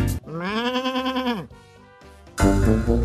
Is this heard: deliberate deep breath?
no